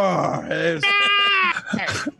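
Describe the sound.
A person imitates a roar with their voice, a few loud, drawn-out groaning tones, the middle one held steady for about a second before trailing off.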